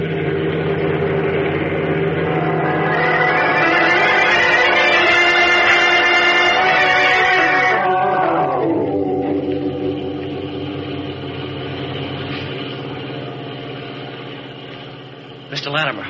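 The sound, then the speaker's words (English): A car engine roars steadily as it speeds up along a winding road, following another car. Its pitch climbs and holds strong before easing down into a lower, quieter hum, with a brief clatter near the end. “Hang on, they're speeding up, and we're going with them.”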